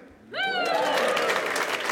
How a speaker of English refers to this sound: Please give yourselves a big, smug, middle class round of applause.